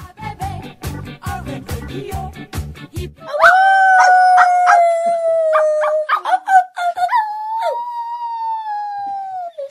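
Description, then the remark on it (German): A rapid run of sharp, punchy barks from dancing dogs gives way to the dogs howling in a long, loud, sustained wail that wavers and breaks briefly before trailing off. No one speaks. “Das war ein Aufnahme mit die tanzenden Hunde heute in Hallo Radio.”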